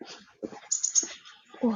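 A bird chirps a quick run of three thin, high notes while soft murmuring voice sounds and low rustling come and go around it, on a road beneath which a small stream flows through an underground culvert.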